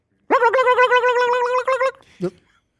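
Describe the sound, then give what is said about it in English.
A person imitates a turkey gobble: a loud, warbling voiced call lasting over a second with rapid fluttering pulses, followed by a brief short vocal burst. “That's like a gobble, though. It's not a cluck.”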